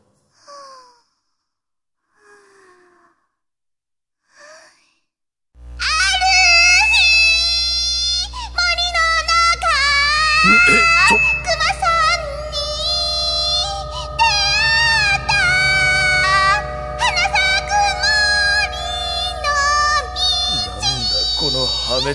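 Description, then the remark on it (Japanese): After a few soft breaths, a child's shrill, piercing voice launches into the nursery song 'Mori no Kuma-san' (The Bear in the Forest), sung for Shin-chan, loudly and continuously, badly off-key, with wavering, strained pitch over a steady low hum. “しんちゃんのために歌います森のくまさん”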